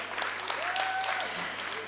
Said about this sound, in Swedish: Halleluja, vi ger Jesus en applåd.